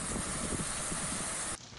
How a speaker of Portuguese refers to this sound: Choveu em quase todo o estado, em alguns locais com menor intensidade. Olha a chuva em Canedo.